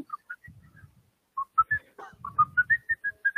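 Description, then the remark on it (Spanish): A person whistles a short, lilting tune: a few scattered notes, a brief pause, then a quicker run of clear, rising pitches over faint low rumbling noise. “Acá cualquier más, pero chiflando.”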